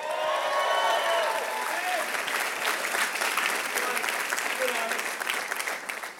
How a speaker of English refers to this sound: Come on, can somebody give God a big shout of praise?